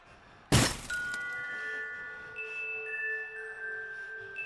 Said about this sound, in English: I ended up slamming through the door of some candy shop.